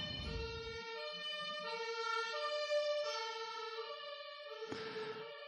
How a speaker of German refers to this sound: Kann sein, dass ihr jetzt gleich übrigens einen Krankenwagen hört, aber das nur so am Rande, nicht wundern.